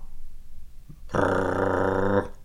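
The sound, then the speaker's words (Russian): A huge black steppe sheepdog, the size of a wolf, sitting chained beside a janitor's booth two steps away, lets out a single deep, rumbling growl lasting about a second, loud and close, after a brief quiet moment. No one speaks. “в двух шагах от себя увидел громадную черную собаку из породы степных овчарок и ростом с доброго волка — она сидела около дворницкой будки и позвякивала цепью.”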